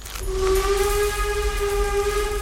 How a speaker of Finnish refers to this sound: Ai teillä on näinkin uudet vehkeet, oikein höyryveturi.